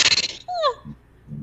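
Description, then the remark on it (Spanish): A single short sneeze: a sharp, breathy burst of noise that ends in a brief high-pitched squeak, followed by faint low murmuring voices. “Salud, hija.”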